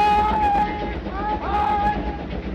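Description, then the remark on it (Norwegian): A train approaches along the rails with a steady, heavy rumble and a long sustained whistle-like tone that fades and returns, fairly loud throughout. “Og nå kommer toget. Nå kommer toget.”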